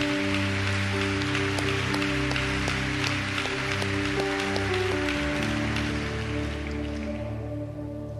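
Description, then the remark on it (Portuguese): An audience at an evening church service applauds loudly for the name of Jesus, a dense, steady wash of clapping that runs throughout, with sustained keyboard chords playing underneath and the clapping thinning slightly near the end. “Vamos aplaudir bem alto o nome de Jesus, vai.”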